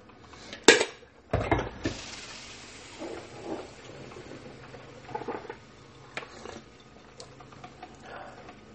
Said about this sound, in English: Pouring myself first cup of coffee with the this Kiambu Kenyan.